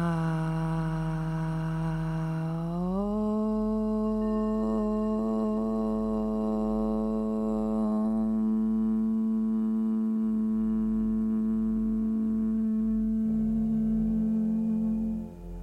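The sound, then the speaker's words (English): A single voice chants a long, steady Om, opening on a slightly lower pitch before sliding up and holding one sustained, resonant tone for about fifteen seconds, closing near the end into a humming M. “we're chanting the syllable in a strong voice, but we're not screaming”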